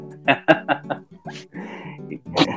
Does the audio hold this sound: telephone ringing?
no